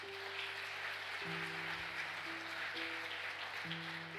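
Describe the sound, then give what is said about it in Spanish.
Steady, dense applause from a crowd for the Lord fills the whole clip, with sustained keyboard chords shifting underneath. No one speaks. “¿Cuánto le un aplauso fuerte al Señor?”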